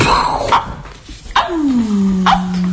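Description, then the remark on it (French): A person imitates a dog with a few sharp bark-like yelps and a drawn-out whine, loud, with no other talking. “Chien”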